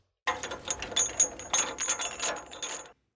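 A chain sound effect: metal chains rattle and clink in a busy, jangling burst for about two and a half seconds, fairly loud, with no voices over it.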